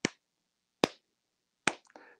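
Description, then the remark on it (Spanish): Three single hand claps, sharp and evenly spaced about a second apart, with silence between them. A brief, softer muffled sound follows the last clap. The only applause in a full, otherwise silent discotheque after a group in silver suits finished singing their first song. “tres aplausos se oyeron en toda la discoteca, así, en, la discoteca llena, todo, todo, todo mundo hizo silencio y solamente tres aplausos se escucharon.”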